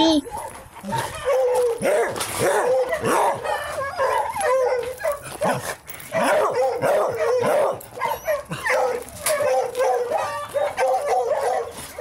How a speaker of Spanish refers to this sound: Cuando él ve que vienen personas, mm. su ojos para acá, para el callejón que yo vivo, se pone a ladrar con otro perro que el vecino tiene.